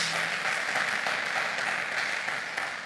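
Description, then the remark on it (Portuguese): An audience applauds God in the name of Jesus, a dense wash of many hands clapping at once, sustained and fairly loud for the whole stretch with no voices standing out. “Dá um aplauso a Ele por isso, em nome de Jesus.”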